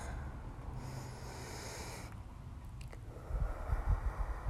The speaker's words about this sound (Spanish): Puedes sentarte en un lugar cómodo, donde estés completamente relajado, donde no sientas nada que te moleste. Tomar una respiración profunda.